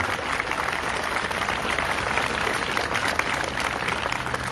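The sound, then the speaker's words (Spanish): Sustained audience applause for the Mexican army, a dense steady wash of many hands clapping at even loudness throughout, with no clear individual claps standing out and no speech over it. “Un aplauso para todo el ejército, para todo el ejército mexicano.”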